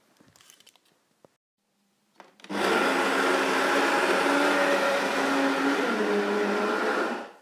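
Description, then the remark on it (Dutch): Early in the morning, a coffee grinder starts up after a few small clicks and handling noises, then runs loudly and steadily for about five seconds, a dense whirring crunch of coffee beans being ground, before cutting off. “De koffie, koffiebonen staan eh, te malen.”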